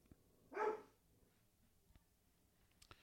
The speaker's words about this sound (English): could you wait till after the podcast before mauling the other do- the other dog, please?